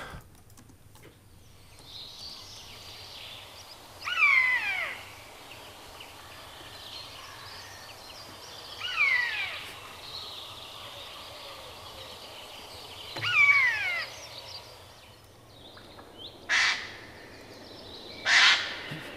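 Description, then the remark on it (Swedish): Harsh, raspy Eurasian jay screeches ring out several times with pauses of a few seconds between them, loud against a quiet outdoor background, with two shorter rough calls near the end. “Då tar vi och njuter av nötskräkan här då.”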